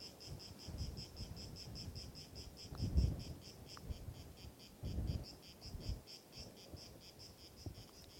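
A cicada chirps steadily in rapid, evenly spaced pulses throughout, moderately distant, with soft low rumbles from the surroundings rising briefly underneath and no one speaking.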